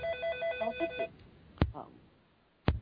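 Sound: telephone ringing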